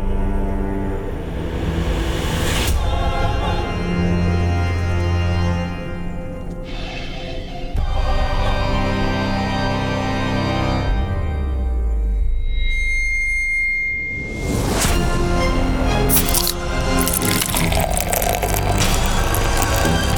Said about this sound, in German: Freunde, jedes Mal, wenn ich diese Intro-Melodie höre, dann freue ich mich richtig. Wisst ihr warum?